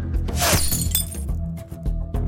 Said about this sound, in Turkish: İlk saldırı 2 Ekim 2002'de Wheaton'da tek bir kurşunun bir mağaza camını paramparça etmesiyle meydana geldi.